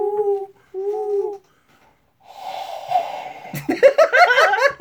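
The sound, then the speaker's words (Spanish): A person imitates an owl with two steady, hollow hoots, followed by a pause, some breathy rustling, then a burst of laughter. “Eso fue mi intento de hacer el ruido de un búho.”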